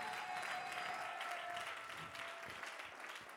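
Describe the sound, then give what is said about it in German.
Sustained applause from a church audience giving Jesus a round of applause, a dense steady patter of many hands clapping throughout, with a faint tonal hum lingering underneath early on and no one speaking. “Komm, lass uns Jesus mal einen Applaus geben für all das Gute, was er tut.”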